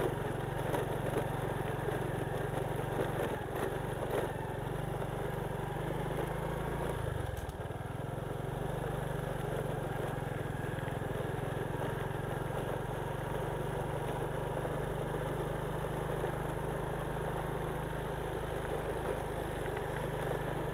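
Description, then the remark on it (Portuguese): A Honda motorcycle engine runs steadily in first gear with a low, continuous drone, briefly dipping in pitch midway, then settling back into a constant hum. “Aqui é Honda, o motor da Honda.”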